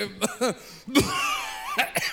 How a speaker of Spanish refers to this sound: ¿Tienes, ¿Tienes tos?